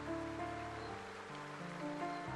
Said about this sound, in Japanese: 雨雲と一緒に雨がやってきた。晴れたままの空も遠くにあったけれど雨雲の下は大雨だった